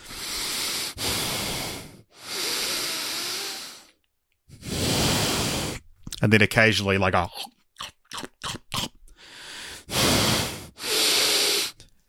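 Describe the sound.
A person imitates the loud breathing of a woman seated beside them in a cinema during a film, with long, heavy, hissing breaths, roughly five in a slow rhythm, broken midway by a short spoken phrase and a few quick, sharp bursts.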